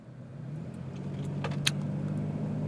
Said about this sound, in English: Oh, a little traffic jam up here, and people driving a little crazy.